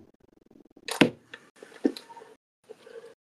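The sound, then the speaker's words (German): Irregular background rustling and shuffling in a house, with a sharp crinkly burst near the start followed by softer scraping and crackling bursts separated by brief quiet gaps. “Digga, in seinem ganzen Haus ist irgendwie, sein Haus ist Cursor und immer raschelt die ganze Zeit.”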